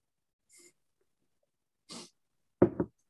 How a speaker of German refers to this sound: Ich glaube, man hat sogar das Gluckern gehört, weil es nah am Mikrofon ist diesmal.